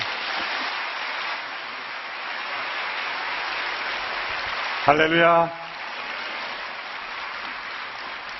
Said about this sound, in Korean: 우리 첫날이기 때문에 뜨거운 박수로 우리 목사님 모시겠습니다.